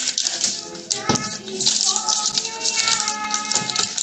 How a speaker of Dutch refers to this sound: Klinkt niet echt als één stembiljet, hè? Eén persoon stopt hier een heel pakket aan biljetten in de stembus.